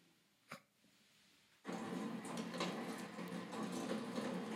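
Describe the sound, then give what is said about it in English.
After a short quiet stretch with a single soft knock, a steady rush of water starts abruptly as rain pours through a drainage tube, full, with a gurgling texture. “Let's try drainage tube.”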